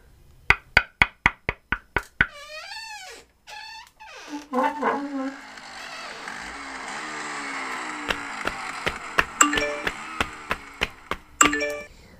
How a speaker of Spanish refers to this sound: Escuché el sonido de alguien tocando una puerta